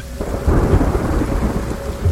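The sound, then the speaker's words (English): A loud crack of thunder bursts in and rolls on heavily, booming low over a steady wash of rain, powerful with no voices. “The loud pang of thunder woke me.”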